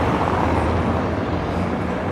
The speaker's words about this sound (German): Ich lasse erstmal die Autos vorbeifahren.